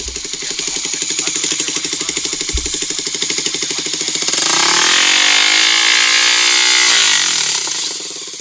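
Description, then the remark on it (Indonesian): A motorized power cutter idles with a rapid pulsing drone, then revs up and grinds loudly into metal pipe, its high, harsh whine rising and falling for several seconds, as Bogor City Police (Polresta Bogor Kota), Indonesia, destroy hundreds of noisy motorcycle exhausts seized as traffic-violation evidence. “Ratusan knalpot motor bising yang menjadi barang bukti pelanggaran lalu lintas yang dilakukan aparatur Polresta Bogor Kota dimusnahkan. Menggunakan alat motong agar tidak dipergunakan kembali.”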